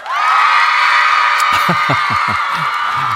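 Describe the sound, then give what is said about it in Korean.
Cheering and applause heard in a song: a large crowd roars and cheers continuously at full volume, with whoops rising above the din and a scattering of thumping claps or beats joining in partway through. “예, 환호와 박수 소리군요.”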